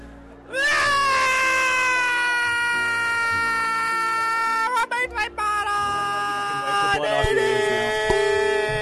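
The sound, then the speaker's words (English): A voice imitates a toddler's screaming meltdown: one long, piercing, wavering shriek held for several seconds with brief breaks, loud, with a soft background hum underneath. “a uh, description, a, an audio, audio, description of, of the, the level of screaming.”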